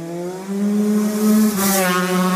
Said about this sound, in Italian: a parte gli idioti in moto, che qualche ragazzo idiota in moto c'è sempre